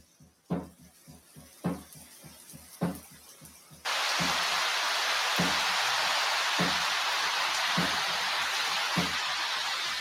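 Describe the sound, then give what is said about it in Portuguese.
Rhythmic low thumps beat steadily, then a sudden dense hiss like heavy rain switches on and fills the rest, loud and continuous, with the thumping still pulsing beneath it. “Depois começamos a sentir a força da água através da chuva.”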